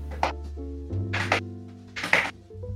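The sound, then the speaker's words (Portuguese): A foot taps the floor three times to imitate rapid running footsteps, dull thumps spaced about a second apart, over a steady low hum. No voices. “Tipo, é, eu não sei, eu vou fazer aqui com meu pé, eu não sei se vocês vão escutar.”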